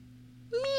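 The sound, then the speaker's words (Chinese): A single meow from a cat pacing on a windowsill, bright and rising slightly in pitch with a strong harmonic tone, starts abruptly about halfway through after a steady low hum and holds loud to the end. “一只猫慢悠悠的在窗台上踱着步子，它舔舔爪子，细细的梳理自己的毛，还不停的甩着长尾巴。”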